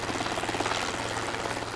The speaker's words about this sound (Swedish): Och plötsligt så badade hela fältet i ljus och dånet från helikoptern blev genast öronbedövande.